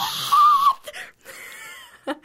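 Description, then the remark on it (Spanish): A man lets out a loud, high-pitched shriek, yelling the celebrity's name Chalamet in one strained burst, followed by quieter breathy noises and a brief second cry near the end. “Se ven como, han escuchado, si no lo han visto, les voy a dejar aquí el sonidito del vato que grita”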